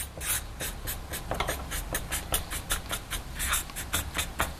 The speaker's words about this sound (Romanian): Aha, aș putea să scriu aici ca să fie, să rămână scrisă, da?